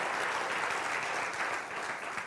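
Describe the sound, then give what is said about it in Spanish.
An audience applauds the Lord steadily, a dense, continuous wash of many hands clapping at an even loudness throughout, with no voices standing out. “Oh, dale el aplauso al Señor, se lo merece.”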